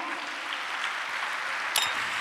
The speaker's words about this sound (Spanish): Dele un aplauso al Señor, aleluya.